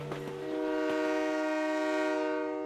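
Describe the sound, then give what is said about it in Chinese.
A fast train's horn blares in one long, steady, loud blast with a rich stack of harmonic tones, preceded by a few brief rattling knocks of the train on the rails, on the Jiujiang–Jingdezhen–Quzhou railway in Jiangnan, China. “其实呀，这也是江南最好吃的快铁，有传统地道的九江名菜，有美味的婺源小吃，还有香辣可口的衢州风味。”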